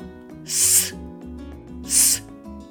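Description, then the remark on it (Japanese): Two sharp, hissing English 's' consonant sounds, as in 'simply', made with a half-smiling mouth and the tongue tip near but not touching the upper front teeth while breath is pushed out sharply; each under half a second, separated by a short pause, over a faint, steady musical background. “で、その状態であの息を鋭く出します。”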